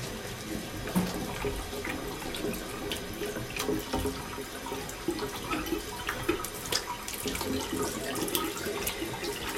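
Water runs steadily from a tap into a sink while someone washes their hands, a continuous splashing hiss with small clatters and shifts as hands move under the stream, fairly loud, no talking.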